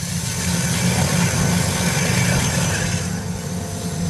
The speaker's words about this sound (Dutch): Wat doet dit? Ja, dit is eigenlijk gewoon een, eh, een, eh, een professionele, hele grote boormachine. klinkt helemaal niet zo heel heftig.